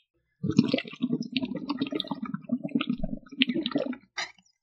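Gulping as someone drinks water from a large glass, a quick run of big wet swallows over several seconds, then a brief pause and one last short sip.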